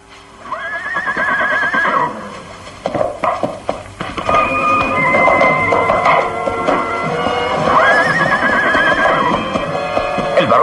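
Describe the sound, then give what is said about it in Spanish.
A horse whinnies loudly twice, with a rising, quavering cry, while hooves clop and shuffle steadily on hard ground as a rider mounts it and places a rifle in the saddle, with no voices. “monta ágilmente y coloca el rifle ensartado en la silla.”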